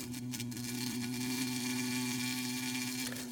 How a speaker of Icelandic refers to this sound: Honum finnst fátt sumarleira en suðandi humlur, flögrandi á milli blóma í góðviðri.